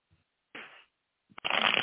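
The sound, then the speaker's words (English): Oracle cards being shuffled and a card pulled for a question about love: a short papery riffle, a brief pause, then a longer, louder burst of flicking and sliding cards. No one speaks. “Okay, I'll pull a love Sharma.”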